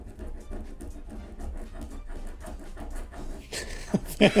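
A quick, steady series of soft rubbing strokes as someone scrubs an eraser back and forth on paper, ending in a few louder, harsher scrapes.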